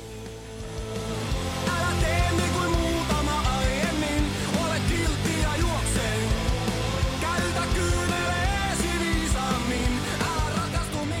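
A loud punk rock song plays throughout, with dense, driving guitars, pounding drums and a strained, shouted vocal line riding on top at a steady, energetic pace.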